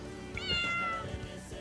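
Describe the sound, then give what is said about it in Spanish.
A single drawn-out cat meow played from a phone on the Radio Garca broadcast, high and tonal with a slight upward bend, over a low, steady background rumble. No one speaks. “A ver, a ver los sonidos de gato.”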